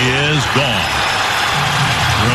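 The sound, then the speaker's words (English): A steady wash of crowd noise fills the whole moment, a large distant roar of many voices cheering at a ballpark after a walk-off home run by Ramirez, heard on the Twins broadcast, with a single voice rising and falling over it. “Now that, sounds like it sounds like 500 people cheering in the probably distance.”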